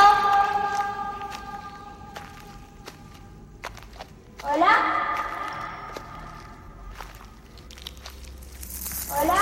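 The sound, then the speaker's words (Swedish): Footsteps move as a girl enters a labyrinth while a voice calls out twice. Each sound rings and lingers in a hollow reverberation. “Um, och vi kan ju lyssna på det, hur mm. det låter när hon kommer in i labyrinten. Eko!”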